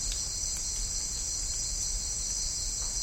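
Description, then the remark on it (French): Steady, dense cricket chirping played as background noise, a continuous high-pitched trill with a low rumble beneath and no voices. “Et euh, j'en étais arrivé à mettre des bruits de fond sonore, de criquet puisque en Guyane on entend, et ici il n'y a presque pas un bruit en fait.”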